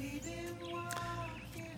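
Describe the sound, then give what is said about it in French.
Faint birdsong with a few brief chirps and tweets over a steady low hum, heard outdoors on a home terrace in the morning, with no one talking. “Les oiseaux sont de la partie, vraiment.”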